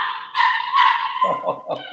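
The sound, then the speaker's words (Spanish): A small female dog barks at home: a couple of drawn-out, high-pitched yelps followed by a quick run of sharper yaps, fairly loud and with no one talking over them. “No, deja de la perrita, no, hay, eh, ya no estamos en un estudio, todos estamos en nuestra casa.”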